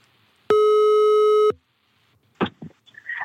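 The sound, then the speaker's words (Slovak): A loud, steady electronic telephone tone sounds once for about a second as a call to a sexologist is dialed, then cuts off; after a short pause, a brief, muffled voice comes through the line. “Ty už rovno vytáčaš, tak dobre.”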